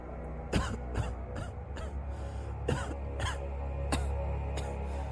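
A close, harsh fit of coughing: a rapid burst of several rough coughs, a short pause, then another cluster and a final cough, with no talking.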